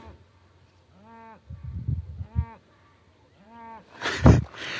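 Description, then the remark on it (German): A cow moos loudly, letting out three drawn-out, strained calls in a row, followed by a sudden louder rough burst of noise at the end. “Aber eine, es eine Kuh eskaliert hier gerade richtig.”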